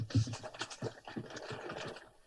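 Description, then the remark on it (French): Rough fabric rustling as a shirt is pulled off, a quick series of scratchy swishes and rubs running for about two seconds with no talking. “C'est un bruit de chemise qui s'enlève.”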